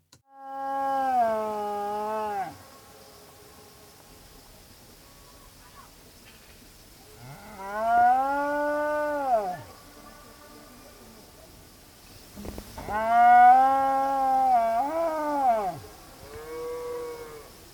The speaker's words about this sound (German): Ja, und auch da habe ich eine Aufnahme von den beiden bekommen. Georgische Abendstimmung. Inklusive Echo und Antworten der Kuh.